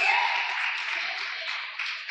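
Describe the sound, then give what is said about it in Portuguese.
A dense, steady wash of applause marking 20 years of history, lasting about two seconds, many hands clapping into a continuous hiss-like patter at fairly even loudness, with no voices over it. “Ninguém vai aplaudir, irmão.”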